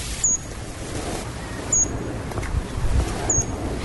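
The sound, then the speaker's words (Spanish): A bearded helmetcrest, a tiny hummingbird of the páramos of Cundinamarca and Boyacá in Colombia, gives three short, thin, high-pitched chirps, evenly spaced about a second and a half apart, over a steady rushing background of wind-like noise. “Es diminuto, esto es un colibrí chivito, esto es un colibrí que está en nuestros páramos, en Cundinamarca y en Boyacá, y tiene una particularidad muy interesante.”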